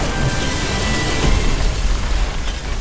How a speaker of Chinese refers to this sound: 这个时候他才发现啊，迪耶狗两只手上都握着两根他自制的土制炸弹。几秒钟之后，传来了惊天动地的爆炸声